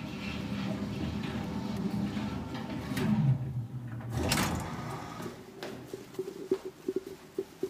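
A mechanical rumble winds down as an elevator stops at a floor, then a whooshing slide of the elevator doors opening, followed by a few light clicks and knocks.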